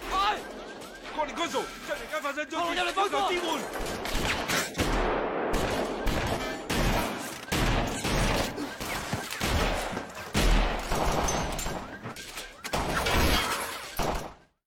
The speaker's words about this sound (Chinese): 比如说当年那个杜琪峰大事件开场一场街头枪战戏，调度非常复杂，那有个大概十三分钟好像是，是吧？